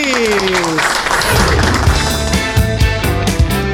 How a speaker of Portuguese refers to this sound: Uma salva de palmas para os nossos patrocinadores!